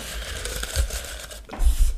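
Crinkly paper rustling fills about two seconds, with a brief lull in the middle before a louder burst of crumpling. No one speaks.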